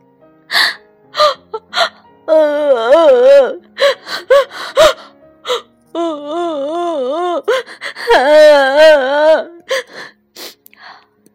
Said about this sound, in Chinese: 小矮人们哭哭啼啼的。